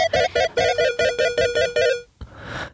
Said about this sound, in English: I'm getting a phone call on this end.